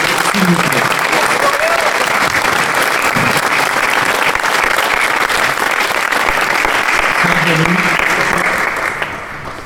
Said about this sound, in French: Monsieur Jean-Loup Chrétien, sous vos applaudissements très fournis et très chaleureux.